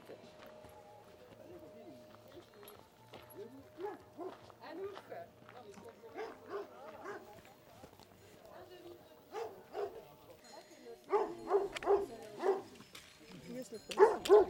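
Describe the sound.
A livestock guardian dog barks in loud bursts, a cluster of sharp barks followed by a couple more, over a background of murmuring voices and outdoor noise.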